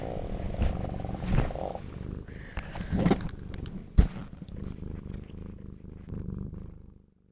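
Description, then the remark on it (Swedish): A cat purrs steadily, a low continuous rumble with rhythmic pulses, interrupted by a few brief sharp bumps and rustles before fading out. “Ja men för i helvete kattjävel. Måste du förstöra för mig?”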